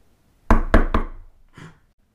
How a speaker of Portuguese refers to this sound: Quem está agora a bater à porta da topeirinha?